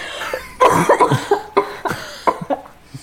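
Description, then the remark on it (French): A loud fit of coughing brought on by laughing: about eight sharp, rapid coughs in quick succession, some with a voiced, almost laughing edge, with no talking. “sachez que quand je rigole, je tousse.”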